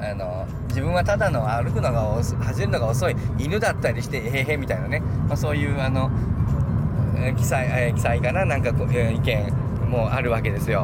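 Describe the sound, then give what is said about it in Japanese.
A loud, steady engine drone from the speaker's own cheap car rumbles continuously throughout, filling the low end beneath a man who talks the whole time. “この車うるせえなねあるわけですよ昨日までの車とは台車だったんで静かだったけど僕のあの自分の車はうるせえ安物の車うるせえね”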